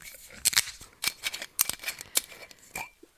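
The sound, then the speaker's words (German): A wine bottle being opened: a quick series of crisp clicks, crinkles and scraping snips in an irregular rhythm, with no one talking. “Wollen wir den aufmachen, einschenken und du erzählst dabei?”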